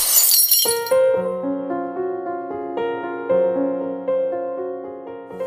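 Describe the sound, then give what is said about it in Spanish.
A glass cup is dropped and smashes in one loud, sharp crash right at the start, the shards scattering briefly before gentle sustained musical notes ring out and carry on alone. “Claro que sigues al lado de héroes y villanos, solo que hay quienes sí están para protegerte y otros que están para romperte el corazón como si dejaran caer una copa de vidrio.”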